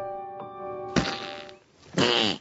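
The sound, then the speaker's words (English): Two loud, sputtering fart noises blown with the mouth by comedian Michael Ian Black, overdubbing farts for a butterfly video, a longer rasp followed by a shorter wobbling one, over a faint sustained tone. “Overdubbing farts for a butterfly video.”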